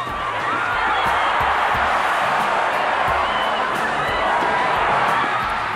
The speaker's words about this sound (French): Les duels à fleurs et mouchetés de la belle époque font place à des combats de gladiateurs mal élevés devant une foule partisane exubérante et bruyante